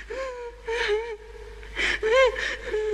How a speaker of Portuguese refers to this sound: Não é um bebê não, mas bebê é um choro. Não, não é um é bebê, mas é um choro, é.